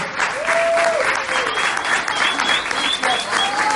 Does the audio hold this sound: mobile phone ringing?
no